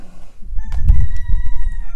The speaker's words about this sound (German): Aber, äh. Kann mal einer den Hahn den Kragen umdrehen?